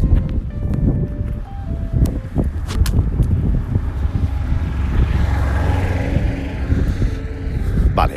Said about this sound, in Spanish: Uy, espérate que viene un coche.